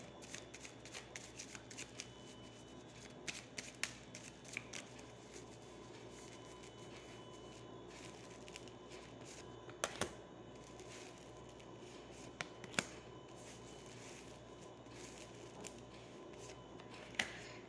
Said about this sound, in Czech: A já už se dívám na vaši fotku, míchám od toho karty a podíváme se teda, co nám k tomu řekne Tarot.